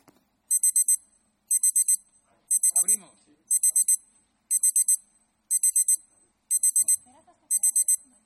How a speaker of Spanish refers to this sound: O problema é cando soa o despertador e hai que erguerse para ir traballar.